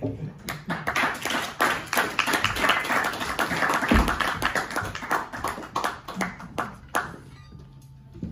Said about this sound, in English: Really clap for him so he won't go commit suicide, guys. Come on.